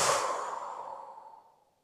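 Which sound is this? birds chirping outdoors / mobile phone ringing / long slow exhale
long slow exhale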